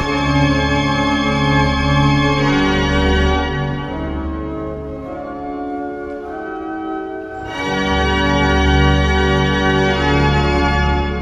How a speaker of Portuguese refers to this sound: Este é o som da inauguração em 2010 dos únicos seis órgãos no mundo existentes na Basílica de Mafra.